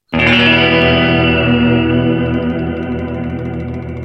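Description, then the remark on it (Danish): A single loud chord struck on an electric guitar through Big Muff and RAT fuzz/distortion pedals, thick and buzzing with dense harmonics, ringing out for about four seconds and fading only slightly. No one speaks. “Big Muff og en rat.”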